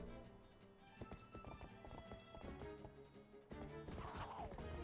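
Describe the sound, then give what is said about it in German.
Galloping horse hoofbeats in a video game clatter in a quick, steady rhythm, fairly loud, followed near the end by a horse's shrill whinny rising over the hooves. “du wirst von deinem eigenen Pferd fast überrannt.”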